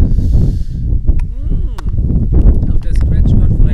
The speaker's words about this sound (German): Boah, es ist jetzt kalt auch noch. Es ist kalt und windig und in diese Störgeräusche hinein mache ich meinen Bericht von Bordeaux 2017, Scratch-Konferenz.